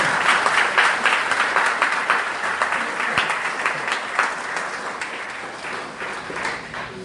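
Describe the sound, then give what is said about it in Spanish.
Loud, sustained applause from a crowd for a doctor, a dense wash of many hands clapping at once that holds steady for several seconds before tapering slightly at the end. “Fuertes aplausos al, al doctor.”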